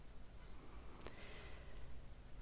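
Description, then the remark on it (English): A slow, deep breath drawn in and let out, soft and airy, with a faint click partway through and no talking. “Really nice deep breaths.”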